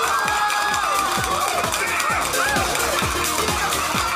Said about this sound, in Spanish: Un aplauso ahí para.